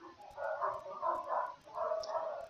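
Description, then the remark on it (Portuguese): Several dogs bark in overlapping bursts as they pass by, three clustered rounds of yapping at moderate loudness, with no one talking. “Copa Gás e cachorrada passando enquanto as pessoas estão estudando o Bodhichara Avatar.”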